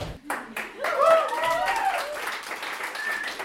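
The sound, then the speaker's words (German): A few sharp claps ring out at the start, then a choir's voices join in over a busy layer of clapping, finger snapping and stomping, performing a rhythm exercise with text, moderately loud. “Ein Rhythmus sein. Klatschen, Schnippen, Stampfen und dann noch der Text dazu.”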